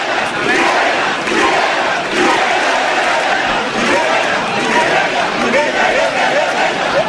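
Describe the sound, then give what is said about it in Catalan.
A large crowd lets out a sustained, loud celebratory shout for a castell (human tower), many voices roaring together for several seconds with a dense, steady wash of cheering and no pause. “Ah, per celebrar rebrà el crit de Calvella”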